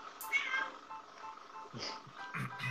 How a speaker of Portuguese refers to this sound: Tem um gato aí